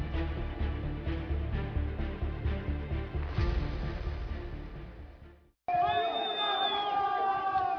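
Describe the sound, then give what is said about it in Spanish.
A large crowd of prison inmates shouts and yells desperately for help after a weekend riot at the Turi detention center in Cuenca, Ecuador, in loud, surging waves. After a brief break, shrill, wavering cries rise over a rough, noisy background. “Son los gritos de personas privadas de su libertad solicitando desesperadamente ayuda luego de un motín registrado el fin de semana en el Centro de Privación de la Libertad de Turi en Cuenca, localizada a unos 480 kilómetros de Quito.”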